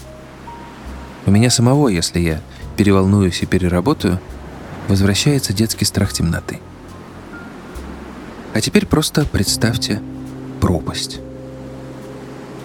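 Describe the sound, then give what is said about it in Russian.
A steady, hollow wind sound effect, added by a sound engineer to evoke being in the mountains, whooshes in the background beneath a man speaking, a continuous low rush that persists through his pauses without gusting loudly. “Уже некоторое время на фоне воет ветер, это звукорежиссер помогает вам мысленно оставаться в горах.”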